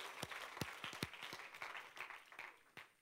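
Hand clapping from a church audience giving the Lord a hand clap during a service, with several sharp, loud claps standing out over a dense, continuous wash of applause from many people; the claps are irregular and no voices are heard.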